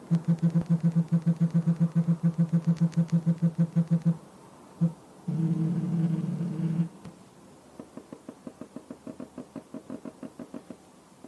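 A K30 Pro phone's Z-axis linear vibration motor buzzes in a fast, even train of low pulses, then gives a single tap, a sustained buzz, and finally a run of lighter, crisper ticks. No one speaks.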